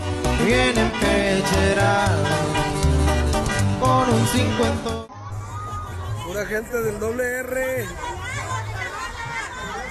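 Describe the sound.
A large, loud crowd of hundreds of waiting people, with overlapping chatter and excited shouts, including children's voices, at a festive parade of decorated luxury pickup trucks in Guadalajara, where narcos hand out gifts, mostly toys, to loud music; continuing throughout, thinning slightly about halfway before staying busy to the end.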